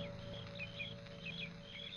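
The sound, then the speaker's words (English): Quiet outdoor ambience where several birds chirp in short, scattered bursts over a steady drone of crickets and low background hum, with no one speaking. “The sound of birds and crickets seemed loud in my ears as we stood there looking at each other, saying nothing.”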